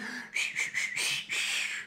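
A person whistles a quick run of short notes, five or so linked blips ending on a longer held tone, with nobody talking over it.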